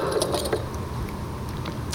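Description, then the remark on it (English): Small metal tools clink and jangle against each other as an army knife with scissors, a bottle opener and a saw is handled, a steady rattle of light metallic taps lasting a couple of seconds. “So it's Army knife, right?”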